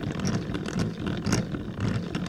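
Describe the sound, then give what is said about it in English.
A steady mechanical grinding whir of gears turning, fairly loud, with a brief clunk partway through as the mechanism is shifted and keeps running in the other direction, like reverse in a car. “right now we're going one direction, and then if you shift it, now we're going another direction.”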